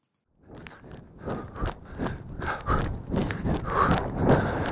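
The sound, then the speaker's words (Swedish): Heavy, rhythmic panting from someone out running, with steady footfalls thudding underneath and growing a little louder toward the end. No one speaks. “Du får väl hålla öronen, eller stänga av öronen om du känner att jag flåsar alldeles för, för mycket.”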